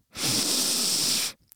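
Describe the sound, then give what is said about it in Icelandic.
A quick, deep breath drawn in sharply, a loud airy rush lasting just over a second, followed by a brief faint click. “ég ætla bara að taka djúpan anda mm.”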